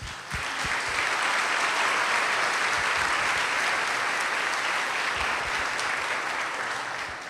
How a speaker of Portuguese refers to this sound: Uma salva de palmas para as mães.